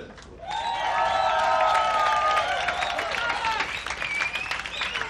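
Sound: audience applause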